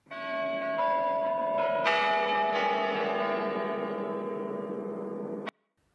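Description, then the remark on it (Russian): Bells chime in a quick cluster of overlapping strikes, their bright ringing tones blending and slowly fading together before cutting off abruptly. Loud, with no voices. “Звон, ring, jingle, chime.”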